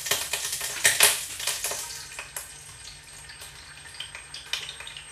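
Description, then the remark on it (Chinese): Egg frying in hot oil in a pan that had some water in it, a dense crackling sizzle with sharp spits and pops that is loudest in the first second, then settles into a steady, softer frying hiss with occasional snaps. “感觉自己蛋有点放少了，但没关系，一样的。”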